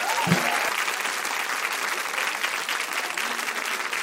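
An audience breaks into sustained applause for a photographer and documentary maker, dense clapping from many hands continuing steadily for several seconds at a fairly loud, even level.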